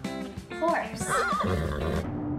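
A horse whinnies loudly, a shaky, wavering neigh that rises and then tumbles down over roughly two seconds, heard on its own.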